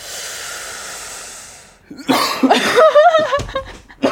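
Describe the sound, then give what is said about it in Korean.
A steady low hiss gives way to a loud burst of harsh, raspy coughing, several rough hacks in quick succession, some with a strained, voiced edge, from a radio DJ with a slight cold during a broadcast. “…님, 누가 기침 소리를 내었어?”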